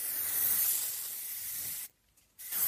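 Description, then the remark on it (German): A graffiti artist's spray paint can hisses in a steady burst for nearly two seconds, cuts off briefly, then starts spraying again with another short blast. No one speaks. “Also wenn eine große Veranstaltung ist, da werden jetzt mittlerweile auch oft Graffiti-Künstler eingeladen, die dann zum Beispiel für einen Kinofilm das, das Hauptmotiv dann sprühen.”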